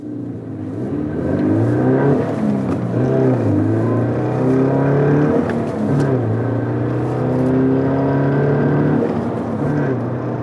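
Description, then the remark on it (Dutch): An updated Subaru BRZ sports coupé, a sister model of a Toyota, revs its engine up and down repeatedly, its loud growl rising and falling in pitch for about ten seconds, with no voices. “Maar goed, eh, die, eh, de, de, Subaru BRZ, dat is een zustermodel van de Toyota, maar dat is een kloon van de Subaru eigenlijk.”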